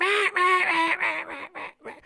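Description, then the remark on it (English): A duck call blown in a quick descending run of about seven raspy, nasal quacks imitating a seven-month-old mallard hen, loud at first, then tapering off toward the end. “Like he just threw in a seven month old mallard hen, just, mah, mah, mah,”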